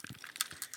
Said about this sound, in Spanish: Pues si, oyen los, hielitos